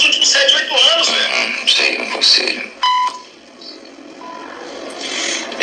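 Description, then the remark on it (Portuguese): A short, sharp censor bleep cuts into a stretch of talking to hide the name of the person who made a complaint, a steady electronic tone lasting about a quarter second before the voices carry on, with a fainter brief tone shortly after. The censoring was done by a parliamentary inquiry (CPI). “Esse bip, a censura foi feita exatamente aqui, inclusive pela CPI, para omitir o nome da, da pessoa que fez a denúncia.”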